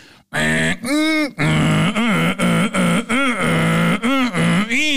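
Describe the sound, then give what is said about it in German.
A voice imitates a dial-up modem connecting to the internet, making loud, continuous warbling tones that rise and fall in quick repeated arcs, broken by short hissy, static-like bursts for several seconds. “Das macht immer so ganz komisch Geräusche.”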